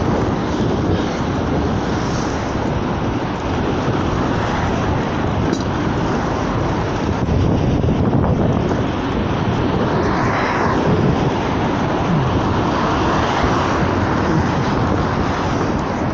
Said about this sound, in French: les voitures qu'on entend sont d'un euh, côté à contre, enfin, dans l'autre sens.